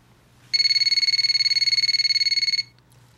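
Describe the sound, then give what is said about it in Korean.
A telephone rings late at night with an incoming call, in one sustained burst of about two seconds, a bright, rapidly trilling electronic tone with strong harmonics, set against a faint low hum, then stops abruptly. “그리고 며칠 뒤 늦은 밤 그가 잔뜩 취해 전화를 걸어왔습니다.”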